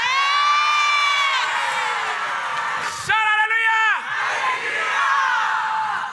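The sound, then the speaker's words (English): A church audience cheers and shouts loudly and continuously, with one sustained high whoop or yell standing out near the middle of the burst of excitement. “But now you are the one who jumps and shouts first.”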